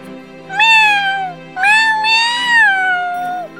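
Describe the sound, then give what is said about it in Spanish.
A cat meows twice loudly, a short call followed by a longer, drawn-out wavering meow, with no one speaking. “Échale unos maullidos”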